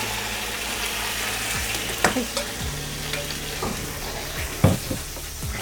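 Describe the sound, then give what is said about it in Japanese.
Beaten eggs are poured all at once into a hot pan with the heat turned up slightly and sizzle steadily, a continuous crackling hiss, with a few scattered clinks and scrapes of a utensil stirring. No one speaks. “それで卵を入れてくださいちょっと火強めますはい、どうぞ回し入れちって、はい、バーッと全部入れちってバーッと全部”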